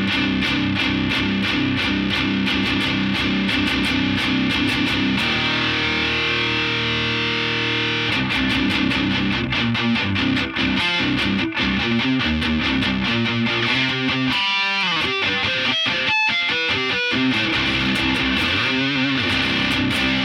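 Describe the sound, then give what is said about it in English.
A loud, driven electric guitar plays through an Isosceles boost pedal in preamp mode into a Silverback amp set at volume two, with thick distorted chords, a sustained held passage midway, then choppy rhythmic strums and quick palm-muted stabs, with no talking. “That is the Isosceles boost in preamp mode into the Silverback.”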